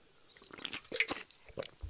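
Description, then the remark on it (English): Someone takes a drink and swishes water around in their mouth, giving a series of soft, wet gulps and squishy sloshing sounds over a couple of seconds, with no talking. “Let me get some water.”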